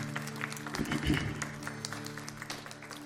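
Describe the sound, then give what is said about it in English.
A church audience claps their hands together during morning worship, a dense stream of sharp, overlapping claps at a fairly steady pace, backed by a sustained low droning tone throughout. “Clap your hands with me, church.”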